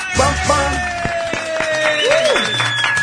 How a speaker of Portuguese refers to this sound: Com as palmas do público presente. Senhoras e senhores, está entrando no ar mais um programa Arretado!